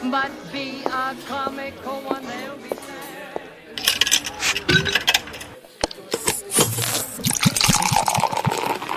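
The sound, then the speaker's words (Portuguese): Cold wheat beer is poured into a glass: a gushing, fizzing stream of liquid with sharp clinks, following a few seconds of bright, tinkling tones. No one speaks. “Enquanto eu pego a sua cerveja, toma aqui e vai lá na Jukebox no final do salão.”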